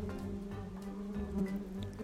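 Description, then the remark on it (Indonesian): A bee buzzes steadily as it flies and darts nimbly about near flowers, its low droning hum wavering slightly, with no voices present. “Kemudian, saat lebah yang sama terbang dan menari dengan lincah di dekat bunga, serbuk sari lepas dan mengenai bunga-bunga lain.”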